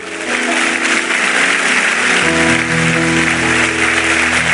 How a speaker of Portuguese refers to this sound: Pode aplaudir a ele.